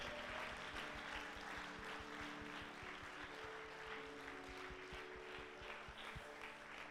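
A crowd applauds steadily, dense clapping filling the room at a constant, fairly loud level for several seconds, with a low musical hum underneath and no one speaking.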